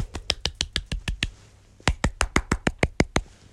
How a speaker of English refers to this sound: small clap for the people, them.